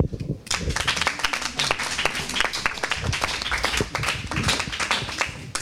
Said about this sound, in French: Bravo, on vous applaudit.